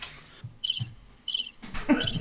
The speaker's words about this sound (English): Crickets.